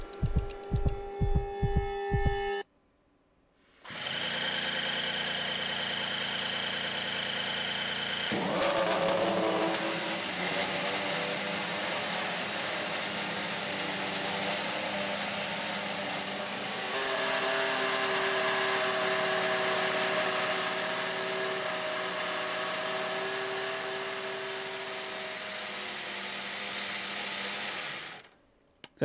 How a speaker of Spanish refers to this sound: Eh, ¿Arrancamos, pues el Mercedes? ¿Arrancamos ese, Mercedes W13 o qué? Venga, va. Vamos a escuchar a esta belleza.